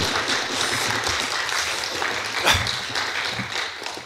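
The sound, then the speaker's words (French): A small crowd of about 16 people claps steadily and enthusiastically, with scattered cheers and whoops rising above the dense patter of hands, sustained for several seconds at a moderate volume. “Mais quelle énergie Ils sont 14, on dirait qu'ils sont, ah, sont 16.”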